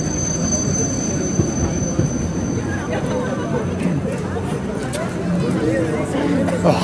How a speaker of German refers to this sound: Geil hier so mitten am Weihnachtsmarkt werden auch bestimmt oft Leute überfahren hier von der Tram.